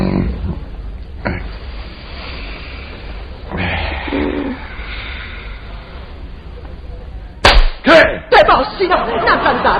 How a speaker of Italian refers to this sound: E che le ammazzi col cannone, le zanzare? Il cannone, socchino, con un colpetto delle mie manine.